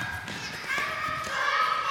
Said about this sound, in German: also ich müsste mich auf jeden Fall für eins entscheiden. So schnell rennen und gleichzeitig so laut schreien könnte ich nicht.